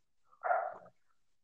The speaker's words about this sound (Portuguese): Um cachorro latindo de fundo, mas é normal.